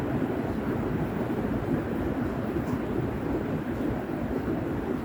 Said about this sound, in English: Allow this rain to take away all impurities, leaving only self yourself.